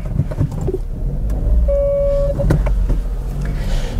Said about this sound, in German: Aber gut, jetzt starte ich erstmal wieder und fahre eine Runde.